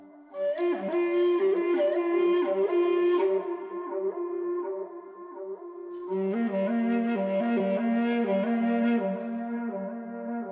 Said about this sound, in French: Il commence donc avec le son mystérieux et envoûtant de la flûte à bec basse,